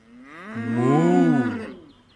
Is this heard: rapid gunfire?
no